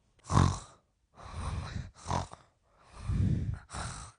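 Raspy snoring in five rough bursts over a few seconds, each a throaty rumble with a breathy hiss, coming in quick irregular succession with no talking, from someone sleeping in a candlelit coffin shaped like a fountain pen.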